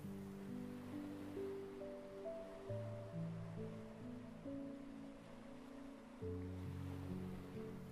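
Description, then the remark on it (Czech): Soft sea waves wash steadily onto the shore, a continuous hushed surf blended beneath slow, sustained ambient chords that shift gently throughout; no one speaks. “nech se ukolébat mořskými vlnami”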